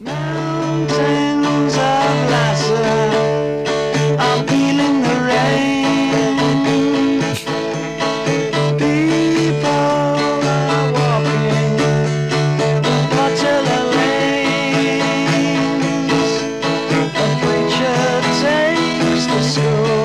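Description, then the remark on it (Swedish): A stripped-back version of a song recorded with only a singing voice and steadily strummed acoustic guitar, played continuously at a full, even level from start to finish. “och då spelade han in en version med bara sång och akustisk gitarr uh, som låter så här.”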